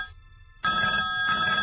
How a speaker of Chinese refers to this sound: 电话铃声突然响了起来。